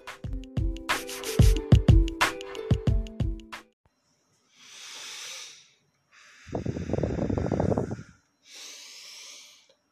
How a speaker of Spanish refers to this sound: Aquí estoy ejercitando mi respiración diafragmática o respiración abdominal como también se le conoce.